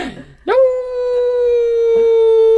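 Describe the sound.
A human voice mimics a howling wolf pack: after a brief noisy start, one long, steady, high-pitched howl rises and holds loudly to the end, unaccompanied.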